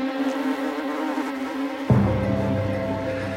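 A bumblebee buzzes steadily, a droning hum that suddenly deepens and grows a little louder partway through, as if the insect shifts position. No voices are heard.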